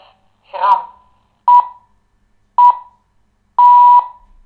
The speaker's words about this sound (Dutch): Zo, en de eierwekker is ondertussen afgelopen.